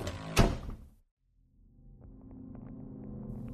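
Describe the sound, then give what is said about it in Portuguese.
A door bangs open with one sharp, loud thud as someone grabs the handle, turns and tumbles into room 5. The thud fades quickly, followed by a brief silence and then a low, steady rumbling hum with faint tonal whines. “Corri para trás, para longe do barulho, e procurei a maçaneta da porta. Eu me virei e caí no quarto 5.”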